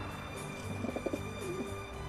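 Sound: pigeon cooing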